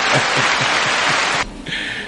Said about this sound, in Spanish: aplausos. Eso. aplausos aquí.